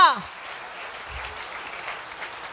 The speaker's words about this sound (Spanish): Si le vas a dar el aplauso al Señor, dígale a tres personas, cambia, cambia, cambia, cambia.